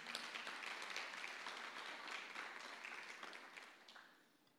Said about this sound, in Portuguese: Você pode aplaudir o Senhor por causa disso?